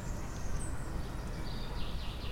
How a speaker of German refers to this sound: am nächsten sind die Vögel.